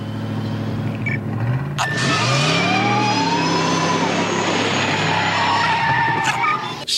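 A remote-controlled car revs and accelerates hard toward 140 kilometres per hour, tires squealing and skidding, a loud, continuous rising whine that fills the whole stretch with no talking.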